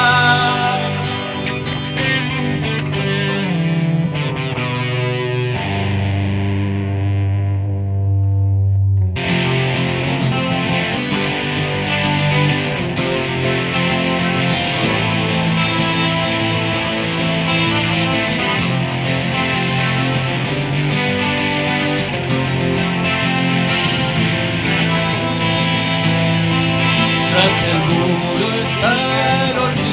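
A few seconds of clean, ringing acoustic guitar give way to loud, distorted electric guitars, rhythm and lead, that crash in and keep up a thick, driving wall of sound through to the end, with no one speaking; a live trio performance.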